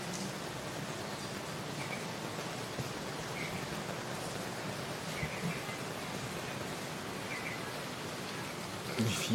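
Steady, heavy thunderstorm rain in Singapore hisses continuously for the whole stretch, a dense even wash of falling water with faint scattered drips and no distinct thunderclaps standing out.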